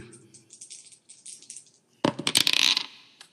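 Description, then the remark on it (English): Dice rolled onto a hard surface, landing on a four: a loud burst of rapid rattling clicks that tumble and settle within about a second, after a stretch of soft, faint tapping. “yeah, but I rolled a four on the dice.”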